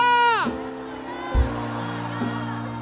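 A church audience shouts hallelujah when asked, a loud burst that falls in pitch and quickly fades, followed by sustained keyboard tones and a couple of soft low thumps.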